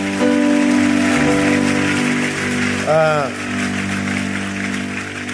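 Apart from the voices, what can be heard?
audience applauding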